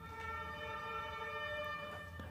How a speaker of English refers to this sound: The ambulances, police, now they're disappearing.